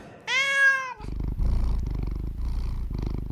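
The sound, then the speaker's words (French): A brief, bright meow gives way to a continuous domestic cat purr, a low rumbling buzz pulsing steadily for several seconds with no voices. “Pourquoi mon chat ronronne ?”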